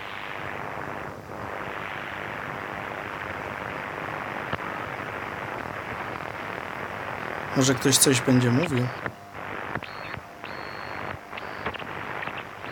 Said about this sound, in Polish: To są jakieś takie jeszcze z, z AM-u rzeczy. Piski, gwizdy. No gdzieś tam od czasu do czasu coś się pojawia